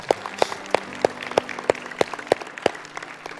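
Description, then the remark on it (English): Audience applause at an evening prayer gathering, a round of applause given to God: a dense wash of many hands clapping, with a steady run of sharper, evenly spaced claps standing out on top, about three per second. No one speaks. “Come on, let's give God a round of applause tonight.”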